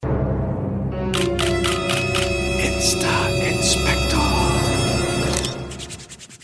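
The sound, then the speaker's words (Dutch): Hands rub briskly together in quick, irregular strokes that give off dry, scratchy friction bursts, fairly loud over a steady tonal hum for about five seconds before fading. “Hoor je dat? Die handjes op elkaar zo, jongens.”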